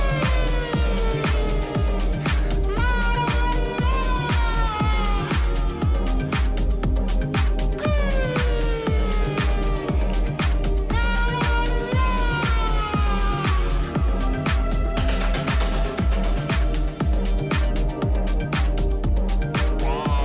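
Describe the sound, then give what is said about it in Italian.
A single by a young Neapolitan band plays loud and steady throughout, driven by a regular thumping beat with a gliding, wavering melodic voice or lead line weaving over dense instrumentation. “quello che state ascoltando è uno dei singoli di questa giovane, giovanissima eh, formazione napoletana che ospitiamo oggi in studio a Zazà.”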